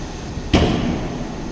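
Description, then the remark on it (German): A heavy cremation oven chamber door slams shut with one sharp, loud thud after the cart has been moved into the oven, leaving a steady low mechanical hum behind it. No voices are heard. “und dann schließt man die Türe wieder.”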